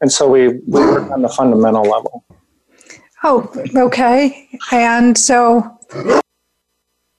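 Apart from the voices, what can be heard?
dog barking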